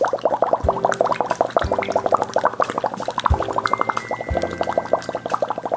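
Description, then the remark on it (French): Continuous bubbling as someone blows through a straw into water in an airflow exercise, aiming for a regular, constant bubble level without overflowing; a steady stream of gurgling bubbles with a few low thumps, fairly loud, no voice. “Bon, pour l'instant, il n'y a pas de son, je travaille uniquement sur mon flux d'air et je cherche vraiment à ce qu'il soit régulier et avoir un niveau de bulle le plus constant possible sans que ça déborde.”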